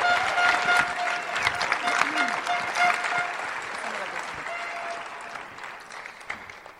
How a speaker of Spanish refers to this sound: Denle un fuerte aplauso a mi esposa, por favor.